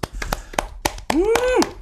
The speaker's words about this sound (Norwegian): Vi må ha en liten applaus for at eh, de i bil får høre oss.